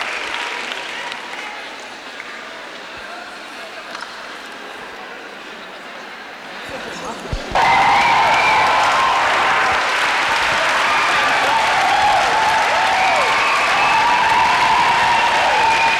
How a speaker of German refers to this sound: Der Applaus, die Frauen stehen alle auf, die Lesben hier, die Applaus sagen, harte Stimmung, super, nächstes Jahr 1994, 20-jähriges Lesbenjubiläum in Hamburg.